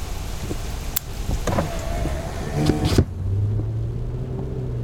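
Steady road noise inside a moving car: a broad rushing roar with small clicks and knocks for a few seconds, then it cuts off abruptly to a quieter, low engine hum.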